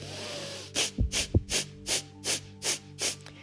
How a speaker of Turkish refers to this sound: Burundan sıkı 10-15 kere e, ateş nefesleri hızlı bir şekilde. Hani şöyle hissettirilecek.